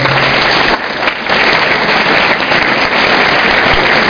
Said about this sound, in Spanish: Ok, ustedes se merecen un fuerte aplauso por eso.